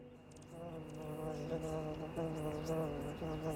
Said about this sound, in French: Tiens, tu entends Elle approche. C'est une abeille. Il s'agit d'un insecte.